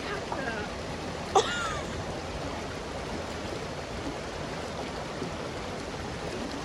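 A steady, dense roar of rushing water from a nearby waterfall fills the whole clip, unbroken and even, with one brief sharp knock early on.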